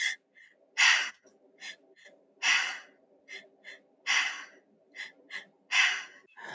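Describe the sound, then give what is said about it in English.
Four forceful, breathy exhalations pushed out through the mouth after deep belly breaths repeat in a steady rhythm about every second and a half, loud, with a faint low hum beneath. “You're actually breathing in so your stomach pops out and then you breathe into okay. your chest and then you're out your mouth.”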